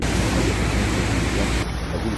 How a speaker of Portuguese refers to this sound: Sinop aqui é só chuva, amigo. Sinop está se acabando em água, amigo.